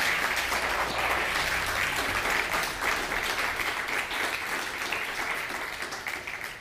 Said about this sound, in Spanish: Así que, Baruch Hashem, dale un fuerte aplauso al Todopoderoso.